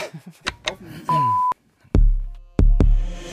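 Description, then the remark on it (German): A single short, steady electronic alarm beep sounds for under half a second, preceded by brief murmured vocal sounds and followed by two heavy, booming thuds. “Schenk mir noch eine kleiner Alarm vorne dran.”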